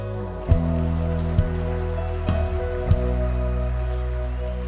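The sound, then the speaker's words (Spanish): An audience claps steadily in applause to Jesus, a dense, continuous wash of applause with a few louder thumps cutting through and a sustained musical tone held underneath. “Un aplauso a Él.”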